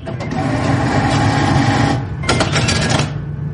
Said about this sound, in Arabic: أو صوت الفلوس وهي نازلة من الصرافة بعد ما نزل الراتب